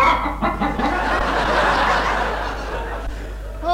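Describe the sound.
A person imitates a chicken's clucking with a few quick, throaty bursts, fairly loud, followed by a wash of audience laughter.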